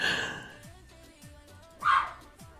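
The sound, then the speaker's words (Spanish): A dog barks twice, one sharp bark at the start and another a couple of seconds later, over a steady background of faint, repeating low thuds. “Ya la, la está ligando el perro.”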